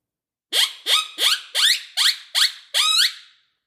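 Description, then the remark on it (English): Loud series of seven sharp, rising coyote ki-yi yips in quick succession, the last one drawn out a little longer, a call imitating a coyote getting into a fight, yipping like dogs do when playing; no talking. “And then the last one I like, it kind of imitates a coyote getting into some fighting or whatnot.”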